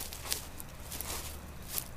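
A few soft footsteps, about three unhurried steps, of a person walking out from the edge of the trees in a park, crunching faintly on leaves or grass at a steady walking pace, fairly quiet against a low background hush.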